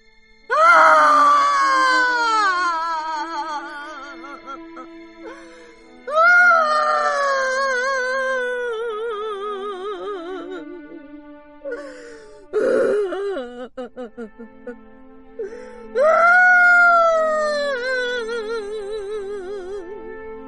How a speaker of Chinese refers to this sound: 刚到村口，就听见隐隐约约的哭声传来，呜呜咽咽的。